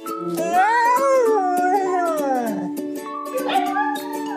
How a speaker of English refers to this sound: And I know that part was rough and a lot to process, so as a little bit of a palate cleanser, here's a bunch of dogs saying, I love you.